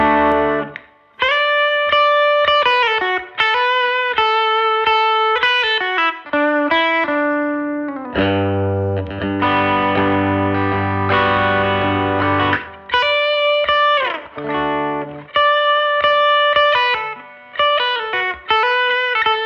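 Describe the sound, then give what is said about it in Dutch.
A Telecaster electric guitar plays a part alone, quick picked melodic notes with an effected, slightly distorted tone, a stretch of sustained ringing chords in the middle, then more bright picked phrases. “Ja, deze twee liedjes die kan je eigenlijk niet op een andere gitaar dan op een telecaster spelen, denk ik.”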